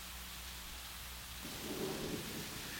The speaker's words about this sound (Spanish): ¡Tormenta!